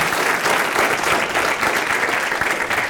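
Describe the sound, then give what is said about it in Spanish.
An audience at a church service claps loudly and steadily in applause for the King of Kings, dense overlapping hand claps filling the whole stretch with no pauses and no voices standing out. “Dele ese fuerte aplauso al Rey de Désele fuerte, fuerte.”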